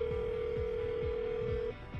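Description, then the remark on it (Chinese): A phone call's ringing tone as a man calls from a gym after his workout: one steady, mid-pitched electronic beep holds for nearly two seconds, then cuts off, with soft low thuds pulsing underneath. “云豹在健身会所的第三个晚上，他骑完了四十分钟的动感单车， 又练了半个小时的器械，摆脱了一位私人教练推销年卡的纠缠，忍不住给莫伟打电话。”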